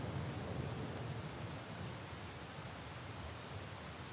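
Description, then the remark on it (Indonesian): Steady rain falls continuously, a dense even hiss with faint patter on surfaces, moderately loud, with no voices present. “Hujan hari ini dan juga untuk hujan hari esok yang mungkin akan datang kembali.”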